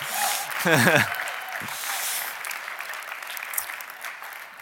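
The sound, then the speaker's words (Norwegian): Soft, gentle applause from an audience, a steady patter of many hands clapping throughout, with a brief voice speaking over it near the start. The audience is welcoming the team that is to plant the church IMI Sørlandet. “Det var en veldig forsiktig klapp, tatt i betraktning at de har tenkt å reise ut for å plante menighet.”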